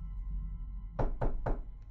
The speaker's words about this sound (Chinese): 当前门响起急迫的敲门声时